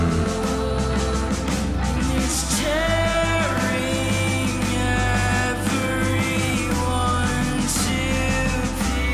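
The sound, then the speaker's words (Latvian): A song plays loudly and continuously, a sung vocal line gliding over full instrumentation with a steady, heavy low end, and no one talking over it. “Kā tev liekas, dzied vīrietis vai sieviete?”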